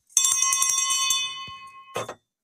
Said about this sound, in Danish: Og således øh, med den indvarslende klokke er mødet åbnet.